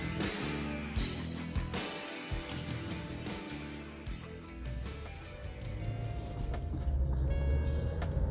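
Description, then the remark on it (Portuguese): Steady, enveloping rumble inside a moving car, with low road and engine drone holding at a constant level throughout and faint tonal hums riding on top. “Quero aproveitar, enquanto ainda estou no carro aqui, para aproveitar o tempo, que é um recurso tão valioso, né?”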